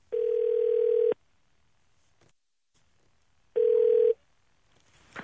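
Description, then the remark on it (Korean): A telephone ringback tone purrs twice as a radio DJ calls a listener, each steady buzz lasting about a second, separated by a long silent pause, with a faint rustle at the very end. No one speaks. “어, 목숨을 걸 정도면은 이분한테 한번 전화 한번 걸어보겠습니다.”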